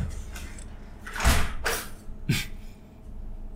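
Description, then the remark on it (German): A window being shut against loud outside noise from a passing bus: a few scraping, sliding sweeps followed by a low thud, with faint background noise throughout and no talking. “Ich mach mal das Fenster zu?”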